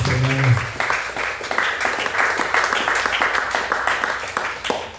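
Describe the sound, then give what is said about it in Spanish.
A church audience applauds steadily in praise of the Lord's name, dense overlapping claps at moderate loudness for several seconds, with a brief voiced tone at the very start. “Debe palmas a y hermanos.”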